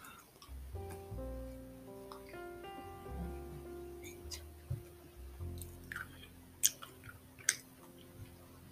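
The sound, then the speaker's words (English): Wet chewing and crunching with occasional sharp bites, set against a steady background of soft tonal music or hum; no one speaks. “I'm sorry for chilling noises.”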